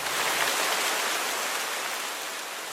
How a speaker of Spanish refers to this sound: De pronto cayó un aguacero. Y otro.